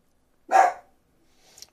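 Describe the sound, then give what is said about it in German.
A dog lets out one sharp, loud bark, then goes quiet, with only a faint brief noise afterward. “Ich glaube, er hat einen Postboten gehört.”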